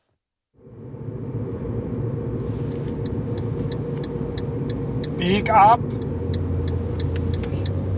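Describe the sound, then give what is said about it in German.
A car engine rumbles steadily from start to finish after a quiet first half-second while driving across Munich to Heidhausen, with a regular ticking like a turn signal and a brief burst of talk midway through the drive. “Wir fahren los, einmal quer durch München nach Heidhausen.”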